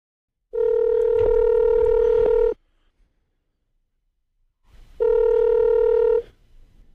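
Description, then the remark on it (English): An outgoing phone call rings through: two steady, buzzy electronic tones, each lasting about two seconds, separated by a pause, clear and fairly loud with no one talking. “we're calling Ryan and Sarah right now”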